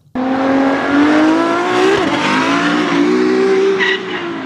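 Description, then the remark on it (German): A loud, high-pitched whine of Formula 1 race cars at full throttle at the Monaco Grand Prix. The engine note rises steadily and dips briefly with a gear change, continuous for about four seconds with no talking. “für das berühmte Formel 1 Rennen auf jeden Fall, den großen Preis von Monaco”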